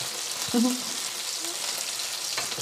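A hot pan of browned onions sizzles steadily with a broad, hissing crackle after a splash of white wine is poured in, with a brief clatter of utensils and a faint low murmur near the start.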